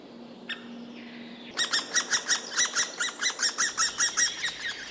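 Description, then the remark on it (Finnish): White-backed woodpecker chicks beg with a rapid, steady run of shrill, rasping calls that start abruptly and repeat about four times a second, loud, over a quiet background hum; recorded decades ago in late May in a birch forest beside Pajulahti road in Nastola, Finland. “Toukokuun lopulla poikasten kerjuäänet kaikuivat metsässä ja emo vastaili ääniin hieman hillitymmin.”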